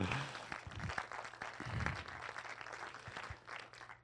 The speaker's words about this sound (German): Hast du heute sehr schön gemacht. Gebt ihm mal einen Applaus dem Andreas.